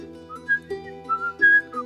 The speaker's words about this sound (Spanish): Empezó a silbar